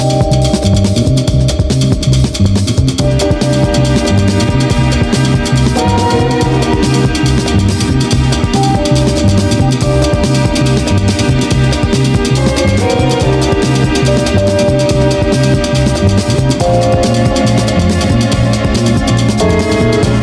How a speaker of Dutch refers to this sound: Ehm, dit, dit liedje had ik dus graag willen laten horen.